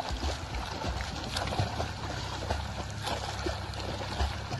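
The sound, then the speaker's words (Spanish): Steady, churning water splashes with rhythmic strokes slapping the surface over a constant background of wind or engine rumble, as a Chilean woman swims a 2.5 km route in the Antarctic sea, in water of 2 degrees. “Esta es ella nadando en el Antártico.”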